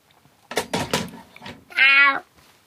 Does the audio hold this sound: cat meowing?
yes